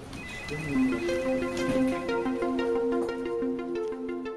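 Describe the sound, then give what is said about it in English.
Office ambience of people at desks from a YouTube channel, dominated by a steady, melodic phone ringtone, a bright repeating pattern of tones playing continuously over a low background hum, with no clear talking. “Some people miss the office so much they've been turning to YouTube channels like this one to hear the sounds of other people at desks.”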